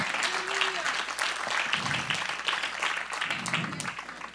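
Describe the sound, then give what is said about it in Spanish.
A church audience applauds steadily for several seconds, giving a round of applause to the King, a dense wash of many hands clapping at once, with faint shouts and voices rising briefly within the ovation. “Dale un aplauso al rey.”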